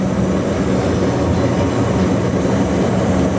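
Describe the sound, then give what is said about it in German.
A steady, loud rumble of an electric train heard from inside the driver's cab, descending a steep 70 per mille gradient after a pass summit while the driver brakes down to about 25 km/h, with continuous low mechanical droning and a faint high whine throughout, no voices. “Äh 70 Promille runter, jetzt geht es ganz steil runter, jetzt muss ich den Zug abbremsen.”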